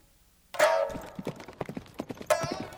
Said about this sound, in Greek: Οι δύο φίλοι με τα άλογά τους κάλπασαν γρήγορα και αποφασιστικά προς την κορυφή του βουνού σαν κορόρα.